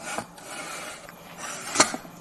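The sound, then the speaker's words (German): A spatula scrapes off chocolate in raspy strokes, with a sharper scratch near the end. Nobody speaks. “Und dann kommt der Spachtel zum Einsatz das, das kann man gleich hören.”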